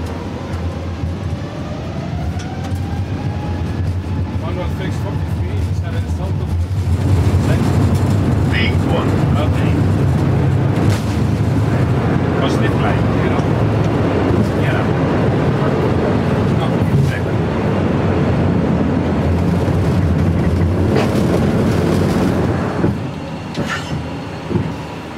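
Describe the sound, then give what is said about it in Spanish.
An airliner's takeoff roll and climb heard from the cockpit: a loud, steady roar and low rumble that swells after a few seconds and holds, with scattered rattles and thumps and muffled voices underneath. “ya estamos en el aire, al recogerse el tren de aterrizaje, las ruedas del avión, ha bajado el ruido muchísimo, aunque el zumbido siempre está ahí.”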